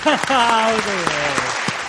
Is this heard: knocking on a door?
no